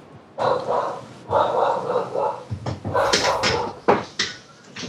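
A dog barks loudly, starting with two drawn-out, whiny barks and then a quicker run of short, sharp barks with brief gaps between them.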